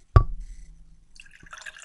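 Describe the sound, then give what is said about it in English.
A sharp splash opens into liquid pouring, low and gurgling, before a bright crackling fizz builds toward the end as a dark brown carbonated drink is poured out of a freshly opened can. No voices. “See, so you can hear the drink being poured out.”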